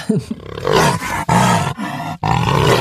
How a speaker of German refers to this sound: Na, zum Beispiel der Jaguar.